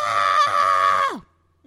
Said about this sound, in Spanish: Y en el mismo instante en que lo dijo, se arrepintió, pero ya era demasiado tarde porque el grito había salido de su boca y las ondas sonoras atravesaban la habitación hasta que llegaron a Pimpín